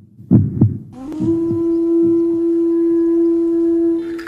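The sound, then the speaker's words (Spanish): Deep, thumping heartbeat pulses in a double-beat rhythm, first loud, then softer beneath a steady sustained drone that fades into a brief airy hiss at the end. “Tayari emite latidos, pulsaciones que se escuchan cual grito de resistencia”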